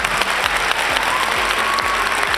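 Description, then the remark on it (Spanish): Steady applause from a crowd, a dense wash of clapping that stays loud and even throughout, with no voices standing out above it. It is an applause sound effect cued by a show's sound engineer. “aplausos ahí, hombre, ingeniero de sonido.”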